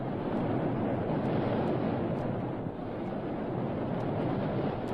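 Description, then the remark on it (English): A steady, loud roar of rushing water fills the whole stretch, a dense continuous wash like a waterfall, with no voices and no breaks. “Listen, that roar. Is it a waterfall?”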